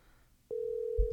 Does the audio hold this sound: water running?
no